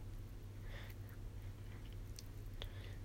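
Japanese rice porridge (zosui) is ladled into a serving dish: faint, soft wet squelching sounds with a brief clink near the end, over a steady low background hum. No one speaks.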